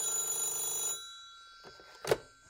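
A telephone bell rings steadily for about a second, then cuts off, followed by a couple of short clunks like a handset being picked up.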